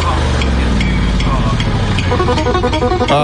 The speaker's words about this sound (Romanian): Uh, nu dau seama dacă e tractorul de lângă ei din videoclip sau e o mașină de tuns iarba.